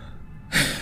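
A single heavy, breathy gasp bursts in after a near-silent moment, fairly loud, like a sharp panting breath taken by a person waking at two in the morning. No one speaks.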